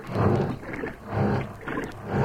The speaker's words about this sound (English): Uh, I'm trying to tell you, Uh, you plugged in the washing machine.